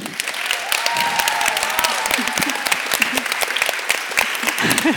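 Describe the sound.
Sustained applause from a crowd, a dense, even patter of many clapping hands lasting throughout, with faint voices and cheers mixed in underneath.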